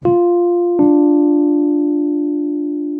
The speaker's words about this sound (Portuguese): É uma terça menor. Terça menor. A terça menor descendente, ela tem uma referência só dela, né? Que é esse som de campainha.